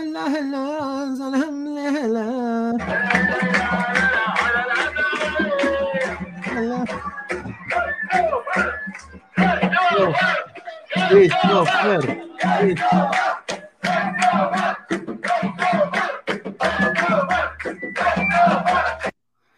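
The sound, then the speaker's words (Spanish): A stadium crowd chants rhythmically in unison, cheering the player Christopher González, with a steady pulsing beat of loud massed voices and bursts of shouting throughout. “la gente lo empezó a, ovacionar, ah, lo empezó a ovacionar porque para ellos Christopher González es, uno de sus mejores jugadores. Acá justamente se puede ver cómo le gritan.”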